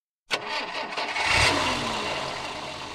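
A car engine cranks and catches with a sharp burst, revs up briefly, then settles into a steady rumbling idle. No voices.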